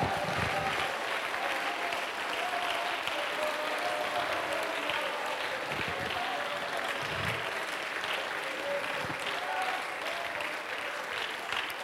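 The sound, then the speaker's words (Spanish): A worship audience claps hands steadily and continuously to praise the Lord, a dense, sustained wash of applause, with faint voices mixed underneath. “Vamos a dar palmas al Señor y vamos a gritar que Jesús venga a este lugar.”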